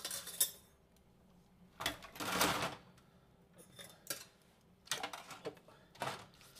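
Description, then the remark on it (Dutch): Metal cutlery clinks and rattles as someone takes it out of a pot, several sharp jingling bursts, with a longer clattering rummage in the middle and a few brief clinks after. “Ja, sorry, ik heb even mijn bestek moeten pakken uit mijn pot.”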